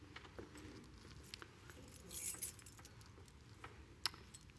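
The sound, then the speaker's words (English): A soft, brief jingle of keys rises around the middle, followed later by a single sharp metallic click, with faint scattered ticks and otherwise quiet, with no talking. “You got your keys with you? Your keys.”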